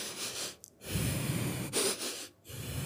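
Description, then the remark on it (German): Heavy, intense breathing, a few sharp gasping inhales and snorting exhales from a suppressed half-sneeze that keeps almost coming but never does, with no talking. “ich weiß nicht, ob ihr es hört, aber es war ein intensives Atmen, was ich hier gerade betrieben habe.”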